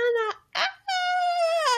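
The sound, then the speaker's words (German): A voice imitates a shrill teenage fangirl squeal at seeing a Japanese person: a short high-pitched shriek, a breathy gasp, then a long, loud, sustained squeal that jumps higher at the end. “Hilfe, kreisch mir nicht ins Ohr.”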